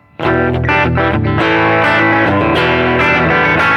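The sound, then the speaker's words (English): An acoustic-electric guitar played with heavy distortion, set all the way dirty, rings out in thick, sustained chords that change every half second or so, loud and gritty with a dense buzzing edge and no voices. “And then if you go all the way dirty”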